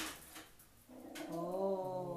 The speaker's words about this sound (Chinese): 不好意思，我们家猫跳到桌子上，然后我们家狗就在底下凑了一点热闹。呃，顺便介绍一下，我们家养了一只猫跟一只狗， 猫狗日常。 对，都超级白的。